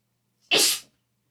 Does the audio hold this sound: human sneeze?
yes